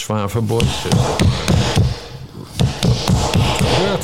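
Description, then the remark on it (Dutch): Repeated sharp knocks of hammering, roughly evenly spaced, ring out over several seconds while voices talk underneath. “Je bent aan het timmeren.”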